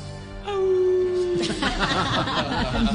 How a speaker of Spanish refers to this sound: en uno de los barrios más opulentos de Guanajuato, Nicolalpan, a la mitad de una noche oscura se oían a lo lejos los aullidos de los coyotes.